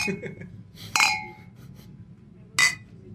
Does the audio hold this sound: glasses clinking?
yes